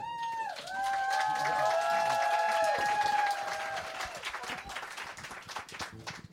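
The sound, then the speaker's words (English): An audience in a restaurant bursts into loud, dense applause after a marriage proposal is accepted, with high whistles and cheers ringing over the clapping early on before the ovation gradually thins out and softens. “The place erupts with applause.”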